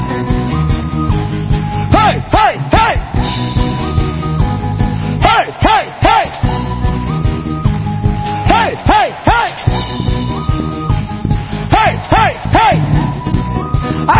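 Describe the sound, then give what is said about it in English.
An audience shouts "hey" together at the devil in loud, repeated bursts that come in short groups every few seconds, over a dense, steady wash of music and crowd noise. “Tonight we are shouting at the devil too.”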